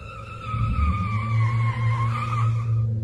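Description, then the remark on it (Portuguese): A car's tires skid loudly across the road as it swerves in the early morning hours to avoid a man standing in the road, a sustained squeal lasting about three seconds, a steady high whine over a deep engine rumble, with no voices. “O carro deslizou na pista e a janela do passageiro estava aberta.”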